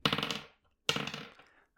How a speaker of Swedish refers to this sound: Nu så ska jag inte ta upp mer av er tid med den här tramset, utan nu ska vi lotta fram en ny Pokémon eh, att gå vidare med. Jag tar fram min tärning